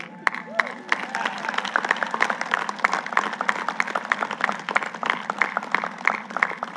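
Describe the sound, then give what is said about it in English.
A sizable audience claps steadily for several seconds, a dense, even patter of many hands with faint voices murmuring underneath. “I would think you'd have an opportunity when I say that about the Navy to clap”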